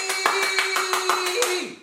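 A quick, even run of about ten sharp hand claps, evenly spaced, with a steady humming tone sustained underneath until the clapping stops.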